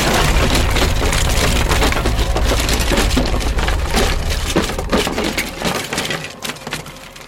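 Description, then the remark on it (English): Loud, dense splintering and cracking of wood as a floor collapses, a sustained crunching collapse with sharp snaps throughout and a deep rumble underneath, thinning out into scattered creaks and breaks at the end. “When I thought it couldn't get any worse, the cracking sound was back, and the floor gave out from beneath me.”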